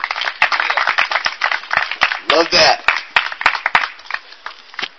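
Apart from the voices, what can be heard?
audience applause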